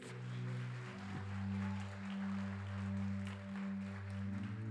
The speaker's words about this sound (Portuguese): Mais um aplauso ao Senhor Jesus pela vida dele.